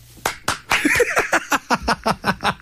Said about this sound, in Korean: 자, 박수 받았고요. 칭찬 받았고.